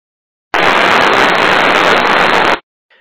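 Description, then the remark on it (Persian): Neural activity picked up by a deep brain electrode as it moves into the depth of a patient's brain during surgery: a loud, dense crackling hiss like radio static, holding steady for about two seconds before cutting off abruptly, with no voices. “صدای الکترود در طول حرکت به عمق مغز شنیده میشه و فرد متخصص تشخیص میده که آیا مسیر حرکت درست بوده یا نه آیا صدا نرمال هست یا نه که یه همچین صداییه که در ادامه میشنوید”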